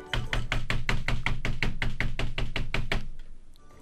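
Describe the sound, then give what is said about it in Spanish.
A rapid, steady run of about a dozen loud knocks on a door in China, rapping evenly for three seconds before stopping abruptly, with no voices. “El otro día me puse a tocar la puerta en China. Y fui caminando y toqué la puerta y dije”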